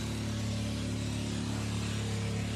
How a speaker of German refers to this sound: Vielleicht hört ihr gerade die Motoren von draußen.